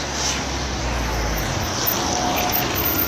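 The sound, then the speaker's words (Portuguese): A car passes by on a street, its steady engine rumble and tire roar filling the background with broad, constant outdoor noise and no voices. “Olha o carro, eu estou andando, inclusive.”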